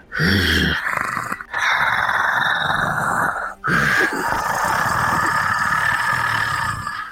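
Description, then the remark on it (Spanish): A rough, guttural growling voice rasps in three long sustained bursts with brief pauses between, loud, a person imitating a creature's heavy exhaling breath. “Qué buen gutural, ¿eh?”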